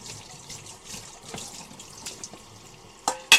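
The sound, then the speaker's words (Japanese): Tap water runs steadily into a sink while dishes are being washed, a broad, hissing wash, punctuated by a few clinks and clatters of dishes near the end, the sharpest one loud. “聞こえてんのかなこれ水道の水道の音を出しながら水道を流しながらお話ししてても私の声は届いているのかしら最悪、えー、アーカイブを聞いたら何も聞こえないということもあるかもしれませんがながら配信3回目は食器を洗いながらということで”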